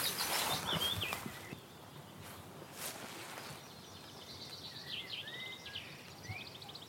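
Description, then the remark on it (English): A willow warbler sings its soft, descending phrase of sweet notes in a scrubby willow area, partly masked by rustling and breezy outdoor noise, with no talking. “That willow warbler descending call compared to the chiff chaff”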